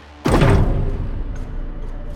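door slamming shut

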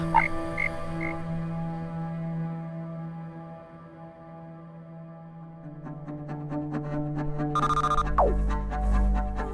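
frog croaking

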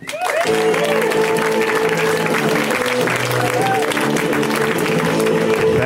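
audience applause and cheering

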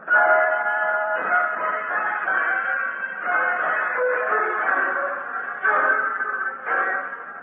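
train running on rails

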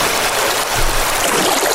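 water flowing

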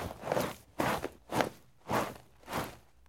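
footsteps walking on sand

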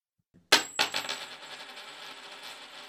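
coin tossed and landing

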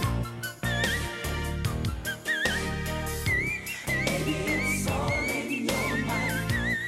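whistle register singing

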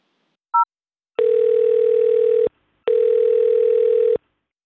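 telephone line ringing

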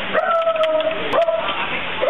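small dog barking

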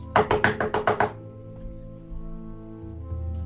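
knocking on a door

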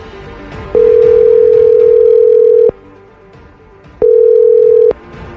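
telephone dialing and ringing

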